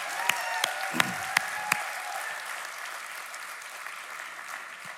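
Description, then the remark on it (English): A church audience applauds in praise of God, with a few sharp, louder claps near the start and a continuous wash of clapping and raised voices that holds for several seconds at moderate volume. “Can we give God praise in this place?”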